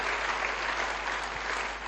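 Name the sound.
audience clapping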